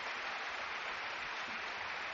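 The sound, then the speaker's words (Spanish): A concert audience gives a sustained ovation for a musician's performance, many hands clapping in a dense, continuous wash of sound that stays steady and full throughout, with no distinct voices rising above it. “La ovación es la mejor crónica a la interpretación de ….”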